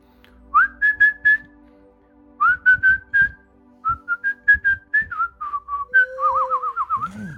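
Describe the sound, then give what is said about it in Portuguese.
Someone whistles a lively melody in bouncy phrases of short, clear notes, finishing on a wavering, trilled note, with a faint low hum underneath. “Quem que sabe assobiar?”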